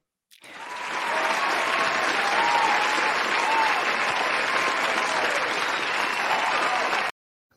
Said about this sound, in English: As the audience goes wild for that, all around the world all around the world.